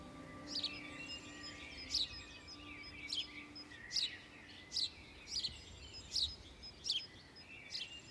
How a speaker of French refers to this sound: qui est en train d'enregistrer des chants d'oiseaux une parabole à la main. Nous sommes au printemps, durant la période de nidification.